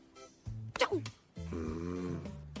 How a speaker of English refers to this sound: Man, he even snores cool need to wake him up.